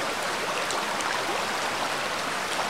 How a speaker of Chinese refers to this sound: 此刻，你已经处在瀑布的下方，瀑布。冲刷着你的全身，使你感觉非常的凉爽和舒服。